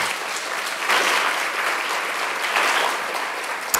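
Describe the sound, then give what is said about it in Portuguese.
An audience at a church service gives a steady round of applause for the word of the Lord, dense overlapping claps forming a sustained wash of sound at even loudness for several seconds, with no voices standing out. “Você pode dar uma salva de palmas pela palavra do Senhor?”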